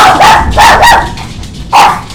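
A dog barks loudly, four sharp barks in quick succession with a short pause before the last one, with no one talking.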